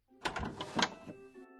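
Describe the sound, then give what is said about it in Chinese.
A bedroom door is unlocked with a key and opened: a quick series of sharp metallic clicks and rattles over about a second, then a fainter lingering creak as it swings. “听见开门声”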